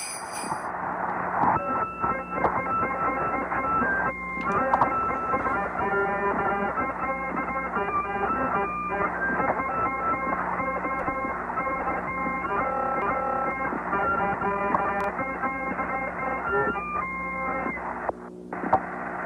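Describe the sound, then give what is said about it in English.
Gemini 6 commander Walter Schirra plays a small harmonica in a simple, steady tune of reedy chords and notes, broadcast from outer space on December 16th, 1965, heard through a narrow, tinny radio transmission with a constant low hiss and hum and no talking. “Gemini 6 commander Walter Schirra breaks out a small harmonica and plays the first song that was ever broadcast by humans from outer space.”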